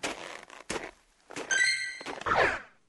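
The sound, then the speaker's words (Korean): A game-style monster appearance alert: a few quick thudding hits, then a bright sustained electronic chime and a short swooping tone, fairly loud, with no voices. “몬스터 출연 알림음?”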